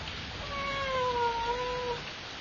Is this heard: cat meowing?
yes